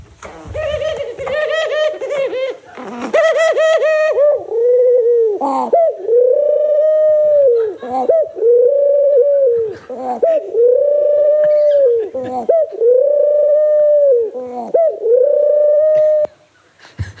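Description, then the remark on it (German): A pigeon coos loudly, repeating the same rolling, throaty call about seven times in a steady rhythm after a brief burst of sharper sounds at the start. “Es ist wie so es ist, also eine Taube, die wo ihm probiert alles zu geben mit Guren so.”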